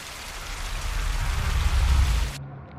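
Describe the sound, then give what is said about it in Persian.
A high waterfall at the end of a tunnel pours with a steady, dense roar of rushing water into a plain about thirty metres below, loud with a heavy low rumble, before cutting off abruptly near the end. “رسیدم دم اون آبشار ارتفاعش زیاد بود تونلم دم همون آبشار تموم میشد و آب میریخت توی دشت دشت سی متر پایین تر بود”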